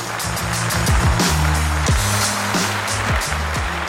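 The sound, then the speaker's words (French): An audience cheers and applauds in a steady, dense wash of noise, with low stepped musical tones sweeping underneath throughout, at Montreux Comédie as the comedian Chimo is welcomed. “Préparez-vous maintenant à accueillir notre prochain artiste et faites du bruit où que vous soyez pour Chimo”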